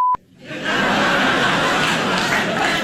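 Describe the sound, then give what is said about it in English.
A short electronic beep, then an audience's subdued reaction to a speaker's joke swells in: a low, steady murmur of chatter with a few scattered chuckles, restrained rather than enthusiastic, lasting a few seconds. “So, as you could hear there, his crowd was not as enthused with some of his uh, what he had to say as as he was.”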